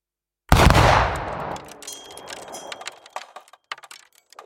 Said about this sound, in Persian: لطیف یک گاز به طرف دیگر نان می زند و میگوید حالا شد یک هفتیر و به سوی من شلیک می کند.